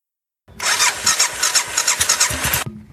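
A motorcycle engine roars to life, revving loudly with a pulsing, rasping rhythm for about two seconds before cutting off abruptly, leaving a faint low rumble, on a hot day somewhere south of Castelo Branco, Portugal, during a motorcycle trip.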